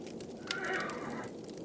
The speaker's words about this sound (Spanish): La cosa se puso más extraña la siguiente noche. Oí de nuevo esos galopes, y esta vez Aquello empezó a relinchar.